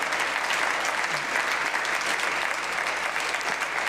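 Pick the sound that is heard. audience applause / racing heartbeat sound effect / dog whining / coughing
audience applause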